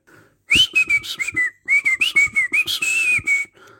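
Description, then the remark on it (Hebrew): A bird on a branch chirps in a quick run of short, bright whistled notes, a steady high tone broken by sharp bursts for about three seconds, fairly loud with no talking. “ציפור צייצה על ענף.”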